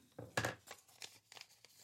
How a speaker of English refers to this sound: I'm going to write down 3250. See why I write in pencil? See why I write in pencil? See, I just see how easy I just erased that. See, that's why I write in pencil because see, I wrote down the wrong time